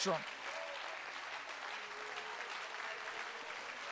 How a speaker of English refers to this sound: As a matter of fact, let's take about 60 seconds and just clap our hands and lift up our voice and believe God that something supernatural